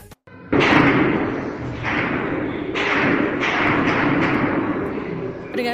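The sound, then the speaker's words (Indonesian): A loud, continuous roar of gunfire and bomb explosions around the capital Khartoum, Sudan, on a Sunday during fighting between army forces and a paramilitary group, with several heavy booms striking roughly once a second over a dense, rumbling background. “Suara baku tembak dan dentuman bom terdengar di sekitar ibu kota Khartoum hari Minggu ketika pasukan militer dan kelompok paramiliter yang kuat bertempur memperbutkan kekuasaan.”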